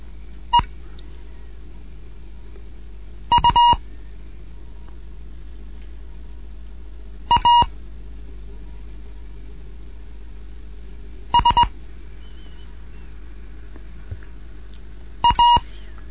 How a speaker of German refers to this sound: DJ1 Kilo November in Bremen mit einem Morseunterricht für Anfänger, fünfte Lektion.